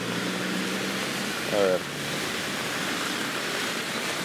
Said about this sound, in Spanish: Esta madre está en y los carros siguen pasando, güey, no mames,